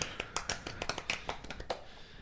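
A brief burst of hand clapping, a dozen or so quick, sharp claps in an uneven rhythm from a small group, fading out after about two seconds.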